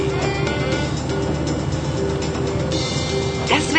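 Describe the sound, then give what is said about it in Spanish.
A car driving along, heard as a steady, fairly loud engine drone with road rumble that holds evenly throughout, with a faint murmur of voices underneath. “Acompañen ahora a … en su incómodo viaje en auto.”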